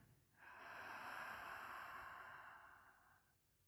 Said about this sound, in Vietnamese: Cùng nhau hít một hơi thật sâu. Mở miệng và thở ra.